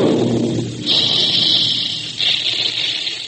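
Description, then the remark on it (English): A cereal puffing gun at a Quaker plant, where puffed wheat and puffed rice are made, fires with a loud, sustained roaring hiss of escaping steam, which breaks off briefly and surges again, forceful, with no voices. “Listen to that big gun. That's the sound you hear all day long at the Quaker plants, where Quaker puffed wheat and Quaker puffed rice are made.”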